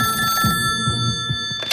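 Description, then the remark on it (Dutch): A telephone rings in an office on a winter day without snow or frost in December 1976, a call from a police commissioner in Merelbeke; a steady, high, clear electronic tone with a low pulsing hum underneath and no voices. “Het is een zieloze winterdag zonder sneeuw of vrieskou en ik zit op kantoor wanneer ik telefoon krijg Lucien, politiecommissaris in Merelbeke.”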